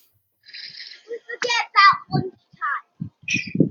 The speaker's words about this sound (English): Sorry, I'm just telling my kids to just be quiet. I know you're um, good, good. Don't worry. Can you hear them? Yeah. Uh, no, no. Yeah, it's, it's, it's, a, it's nice, a, lovely little nice background.